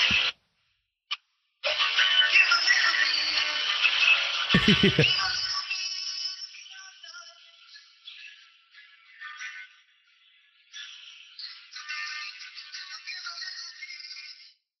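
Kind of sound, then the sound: sound effect, song playing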